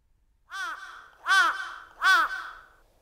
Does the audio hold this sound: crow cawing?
yes